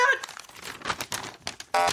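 Three paper slips, each with the truth written inside, being unfolded, with crisp crinkling and rustling in a run of irregular bursts, ending on a louder, sustained crackle.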